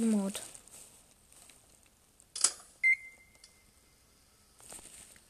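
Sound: microwave oven beeping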